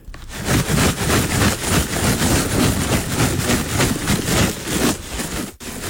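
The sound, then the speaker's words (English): A bag of sunflower seeds shaken steadily, a dense, loud rattling rustle pulsing in quick rhythmic bursts for several seconds, with no one speaking. “what it is actually is sunflowers yeah. sunflower seeds.”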